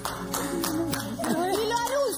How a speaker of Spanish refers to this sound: Perdón, para, para, para. Pregunto. ¿Por qué aplaudís tanto, madre?